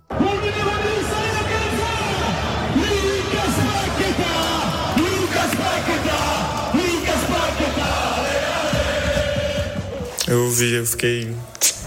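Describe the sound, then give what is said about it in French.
A large crowd of football fans sings a special chant for Lucas Paqueta together, loud and sustained with a rolling, repeated melody, before the sound shifts briefly to sharper cheering near the end. “Logique hein, qu'il soit donc devenu le chouchou du public qui lui a d'ailleurs réservé une chanson spéciale.”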